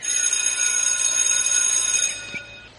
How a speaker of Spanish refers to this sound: ya ha tocado el timbre. Pero si no hay clases, la escuela está cerrada.